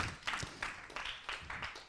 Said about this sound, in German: Geben wir doch dem Worship-Team einen fetten Applaus. Danke vielmals für euren Dienst.